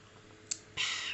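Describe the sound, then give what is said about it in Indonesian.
A single sharp click from a drink container being handled as someone takes a drink, followed by a short burst of airy hiss like a cap twisting open or a quick sip, with no talking. “terus ntar ah minum ah aus tunggu tunggu oke”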